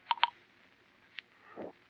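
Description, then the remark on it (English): A telephone being dialed: two quick, loud touch-tone beeps in succession, followed by a sharp click and a soft muffled thump, with no voices. “get my lawyer on the phone.”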